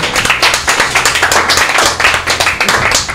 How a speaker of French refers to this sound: Yes, en tout cas, on va applaudir surtout notre invité